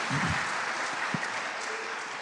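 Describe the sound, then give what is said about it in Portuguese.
An audience in a church temple applauds Jesus for the lives of fellow church members, a dense wash of many hands clapping steadily at even loudness throughout, with a brief low voice or thump at the start. “Você pode aplaudir a Jesus pela vida desses irmãos?”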